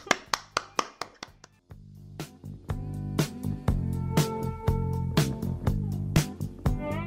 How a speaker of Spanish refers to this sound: Venga, un aplauso a esa gente que cierra el ranking. ¡Vamos!